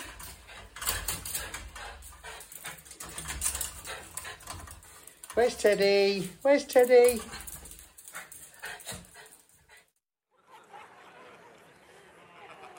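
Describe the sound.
Dogs whimper and whine excitedly as their owners come home, with a burst of high-pitched, wavering cries in the middle, mixed with a person talking and household commotion that fades to quiet.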